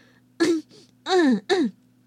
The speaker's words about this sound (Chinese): …清了清嗓子，准备说获奖感言。